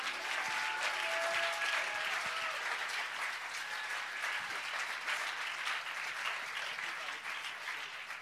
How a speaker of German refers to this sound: Also kann man auch einen Applaus geben, geil, stundenlang spielen.